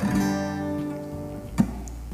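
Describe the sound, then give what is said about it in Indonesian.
A single strummed G major chord, made of the notes G, B and D, rings out clearly on guitar and slowly fades, with a soft extra knock on the strings near the end. No one speaks. “Sol, Si, re itu adalah nada atau kunci G suaranya seperti ini kalau digenjreng”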